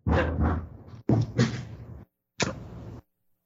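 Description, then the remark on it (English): A dog barks and whimpers in three loud, drawn-out bursts, each made of a few quick yelps running together, with short silent gaps between them and no one talking. “All right, so having a little dog mutiny, but um, sorry.”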